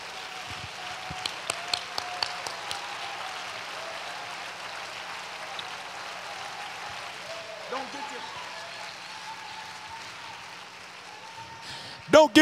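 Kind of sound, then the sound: crowd, audience clapping hands together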